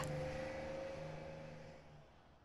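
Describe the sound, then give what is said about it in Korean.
The engine of a rattling intercity bus travelling to Anseong drones steadily, a low rumbling hum with a faint tonal whine, easing off slightly toward the end. No voices. “덜컹거리는 버스 못지않게 내 심장도 요란스럽다.”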